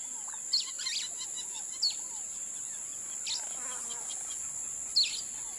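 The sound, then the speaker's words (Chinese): Rainforest ambience of birds and insects recorded in the Amazon jungle in Brazil: a steady high-pitched insect drone runs throughout while scattered bird chirps and whistles pop out briefly, a few louder calls standing above the background hum. “现在您听到的是巴西亚马逊丛林里边的声音采样。”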